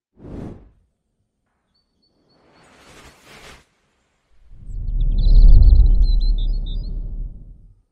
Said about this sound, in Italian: Eccoci il, cinque, il cinguettio di chi appunto che si ascolta al mattino andando in un vigneto, è quello anche della sigla, no?